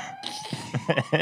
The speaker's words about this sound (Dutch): We zitten echt buiten. Ja. Het is het geluid van de politie. Woep, woep. Het geluid van de politie. Ah, woep, woep.